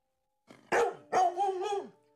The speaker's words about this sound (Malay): Dia menyalak, menyalak ke atas uh, ke, ke arah kereta kita orang. Dia menyalak.